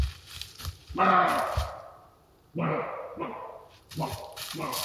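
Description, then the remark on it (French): A roe deer buck barks in the distance in a forest at the start of the rutting season: about five short, harsh, powerful barks, fairly loud, spaced irregularly with brief pauses between them. “Au loin, des aboiements agressifs parcourent soudain la forêt. C'est un mâle. Il a repéré la femelle et le fait savoir par des cris aboyés, brefs et puissants.”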